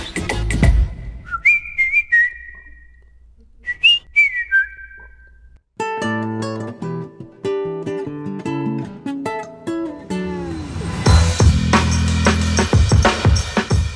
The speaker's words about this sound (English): But I couldn't stop whistling. This catchy little tune, this catchy little tune got stuck in my head.